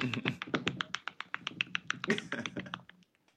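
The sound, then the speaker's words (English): A rapid run of crisp key presses as someone writing notes keeps pressing the enter key, roughly twenty clicks in quick, slightly uneven succession, clear, tapering off near the end. “Before I get into my little spiel, he's writing notes and he kept pressing enter.”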